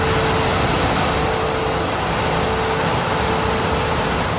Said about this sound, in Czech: Tak takhle to hučí ve výrobě. My jsme museli jít o kousek dál, abychom se vůbec slyšeli.